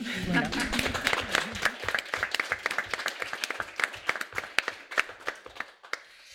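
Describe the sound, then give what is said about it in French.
A small group of women applauding themselves at an evening event claps together in a burst of applause, dense at first and then thinning into scattered individual claps, fairly lively; brief voices are heard at the very start. “Je propose qu'on commence par nous applaudir toutes bien fort parce qu'on parce qu'on s'aime.”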